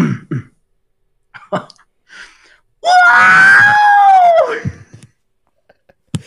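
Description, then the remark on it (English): A voice imitates a video game robot's death noise: a few short throaty bursts, then a loud, strained electronic-sounding wail lasting about two seconds that bends in pitch and drops off abruptly. “BONUS Lego Star Wars DEATH NOISES impressi”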